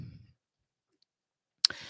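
A sharp computer keyboard click, made as a pet walks across the keyboard, stands out after a stretch of near silence, followed by a soft hissing rustle, with a faint low rumble at the very start. No one speaks.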